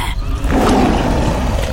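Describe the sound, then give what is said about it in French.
A sabre-toothed tiger cries out with a loud, rough roar that swells in and holds for over a second, harsh with no speech around it. “Les mammouths ont entendu les cris du tigre et en profitent pour déguerpir.”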